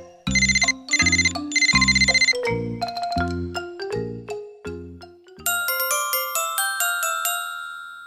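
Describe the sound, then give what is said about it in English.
A loud electronic phone ringtone plays alone: three buzzy ringing bursts, then a quick descending run of bright tones ending in a rapid high chiming melody. “Ducks go ring. Ring, ring, ring.”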